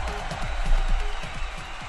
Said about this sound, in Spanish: Ah, no he dicho Ricky y ya empezaron los aplausos.